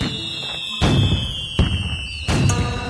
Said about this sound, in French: Tiens, par exemple, les feux d'artifice.